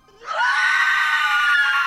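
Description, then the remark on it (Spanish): A single loud, sustained scream from a person who turns around quickly while preparing breakfast in a kitchen in the morning; it rises sharply in pitch and then holds steady at full volume for over a second and a half, unaccompanied by speech. “Volteó rápidamente y al mismo tiempo que de su garganta salía un fuerte grito.”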